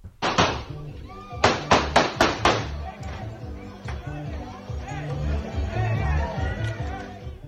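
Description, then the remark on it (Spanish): Gunshots fired into the air by a man during a brawl: one loud crack, then a rapid volley of about five sharp bangs, with a noisy crowd talking and shouting throughout and continuing afterward. “Y el video del que menciona eh, Paco es un momento en el que hay una gresca, una pelea, y un sujeto literalmente saca un arma y dispara al aire para dispersar esta Así ah, de sencillo.”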